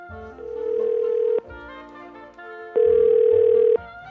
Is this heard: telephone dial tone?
yes